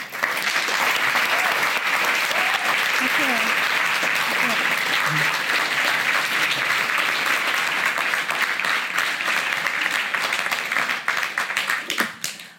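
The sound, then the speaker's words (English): A large audience applauds steadily for about twelve seconds, welcoming writer Joyce Carol Oates to the stage, a dense, even wash of clapping from many hands that tapers off slightly at the very end. “Please give her a warm welcome.”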